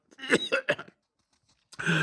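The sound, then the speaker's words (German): A man gives a rough, hacking coughing fit in three rasping bursts, then a brief quiet before another harsh, strained cough begins, voiced, imitating an old man's cough. “Und der Greis hustete endlos.”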